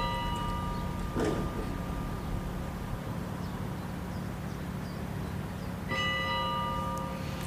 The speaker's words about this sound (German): Jetzt hören wir die Glocken. Genau. Psst.